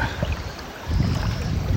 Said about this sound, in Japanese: えー、結構遊んでますで今この水の中の浅瀬をジャブジャブ川に入りながら涼みながら